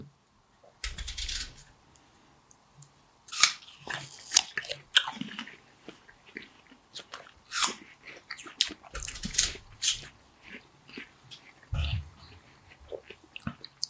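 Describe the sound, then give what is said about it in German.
Crunchy bites into an apple during an apple tasting, followed by steady wet chewing, with sharp crackling bursts repeating irregularly over several seconds and no talking. “Ist schwierig natürlich jetzt äh, als Podcast, aber andere trinken Wein, Bier, habe ich gesehen oder gehört, dann können wir ru ruhig auch mal Äpfel essen.”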